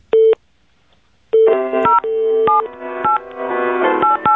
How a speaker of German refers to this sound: Okay, also und ich spiele hier auf meinem Telefon ein bisschen mit, ja? Mhm, Okay. Ich versuche mal, das, die Melodie aufzunehmen.